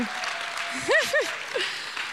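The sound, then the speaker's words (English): An audience applauds mothers who had babies in 2020, in a steady, dense wash of clapping that lasts the whole moment, with a couple of short rising-and-falling vocal whoops breaking through near the middle. “And let's give them a round of applause because these women are amazing.”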